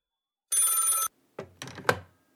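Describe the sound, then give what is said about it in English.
A single burst of an electric telephone bell, the Kids Poetry Club phone, rings for about half a second, bright and steady, followed by a short clatter like a receiver being picked up and handled. “Oh, hang on, that's the Kids Poetry Club phone.”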